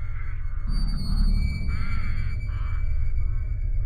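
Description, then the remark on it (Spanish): A startled raven, perched on an outer window frame, gives a few harsh, rasping caws over a steady low rumble as it flies off when the window is opened, the calls spaced out across a few seconds. No one speaks. “Pero el pájaro huyó asustado.”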